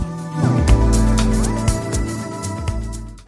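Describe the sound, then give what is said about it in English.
Car horns blare almost continuously in heavy, busy traffic on a Friday evening, with several overlapping sustained honks of shifting pitch over a deep, steady engine rumble. The sound is loud, with no talking. “What a busy traffic on this Friday evening!”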